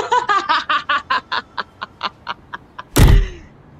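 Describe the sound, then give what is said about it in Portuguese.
A run of short, rhythmic snickering laughs fades out, then a door opens with a single loud, heavy thump and a brief rattling tail as a man and a woman walk through it into a living room. “cruzou a porta com Carmen”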